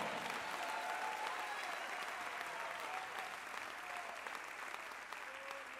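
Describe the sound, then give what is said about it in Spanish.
An audience applauds steadily for the Lord, a dense, even wash of many hands clapping at once that holds its level for several seconds, with faint voices calling out beneath it. “Si usted le cree, déle un fuerte aplauso al Señor.”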